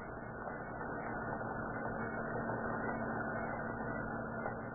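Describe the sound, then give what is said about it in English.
A roadster's engine idles steadily at the city dump on the eastern limits of Huntington Beach, in fog, a continuous low rumble with a faint hum that holds at an even, moderate level throughout, with no voices. “down the lights and pull up close to where she's burning there. That's good. Kill your motor and we'll get busy.”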